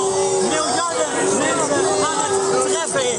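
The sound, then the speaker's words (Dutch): A concert audience in the Concertgebouw jeers and boos loudly and continuously at an Extinction Rebellion climate activist who climbed onto his chair to make a plea, a dense wall of overlapping voices with shouts rising above the din, sustained throughout. “En zoals je kon horen, rekende, eh, kon dat rekenen op eh, veel boelgeroep vanuit het publiek.”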